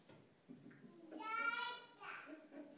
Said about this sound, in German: Wenn ihr das jetzt nicht gehört habt über das Mikro, das hat mir gerade ein kleines Kind zugestimmt.